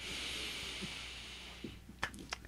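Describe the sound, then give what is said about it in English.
A long, deep breath drawn in through the nose during a guided relaxation exercise, airy and steady, trailing off into a few small clicks and mouth noises. “And what you really want to do is let everything flow. Breathe in.”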